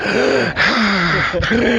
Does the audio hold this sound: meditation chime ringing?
no